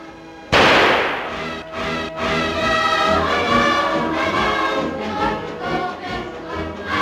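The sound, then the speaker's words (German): A single sharp, loud gunshot, the first shot at the honorary target fired by Gauleiter and Landesoberschützenmeister Hofer, cracks out and echoes briefly, followed by steady brass band music playing on for several seconds. “ersten Schuss auf die Ehrenscheibe hat der Gauleiter und Landesoberst Schützenmeister Hofer.”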